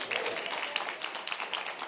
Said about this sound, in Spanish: Dele fuerte ese aplauso al Señor y a su nombre.